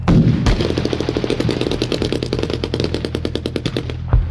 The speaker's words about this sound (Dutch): Nou, op dat moment kregen ze gericht vuur vanuit het gebouw. Een gebouw rechts daarvan werden handgranaten gegooid naar, naar onze eigen jongens.